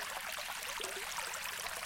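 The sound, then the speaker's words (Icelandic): A steady babbling brook lying across a road, water rushing and bubbling continuously over stones at a soft, even level with no voices or other sounds. “Á leiðinni varði lækur á vegi hans.”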